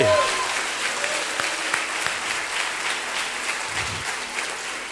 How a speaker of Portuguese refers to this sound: Aplaude a Deus, aplaude!